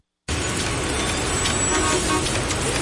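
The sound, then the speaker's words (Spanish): After a brief silence, a loud, steady roar of congested street traffic starts abruptly, with car horns faintly sounding within the dense rumble. No one speaks. “Si estás en tu auto embotellado en el tránsito, tienes dos opciones.”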